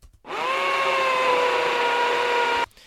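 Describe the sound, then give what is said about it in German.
An electric drill whirs steadily for a little over two seconds, starting and stopping abruptly with a constant high-pitched motor whine. “Jetzt stehe ich direkt am Anfang des Bohrmaschinengeräusches, das ungefähr 30 Sekunden lang ist und habe somit mit der Cursorposition auch gleichzeitig die linke Auswahlgrenze gesetzt.”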